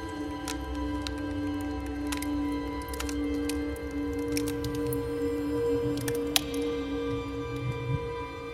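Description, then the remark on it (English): Melting ice inside a glacier crevasse, about 30 meters (100 feet) down in the glacier, makes repeated sharp ticks and cracks at a loose, roughly steady pace, set over a constant low droning hum, with no voices present. “I think it was so the ice is melting. It was not dripping. It was like and was constantly mm. in beat, and it was uh, the rhythm, and and that was like uh, hundred feet down in the glacier”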